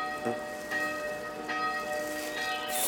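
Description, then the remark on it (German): A monastery church bell rings steadily, its strikes about every three-quarters of a second leaving long, shimmering overtones that hang in the air, with a soft hiss like light rain in the background. “Viel schöner als die altkniete Glocke.”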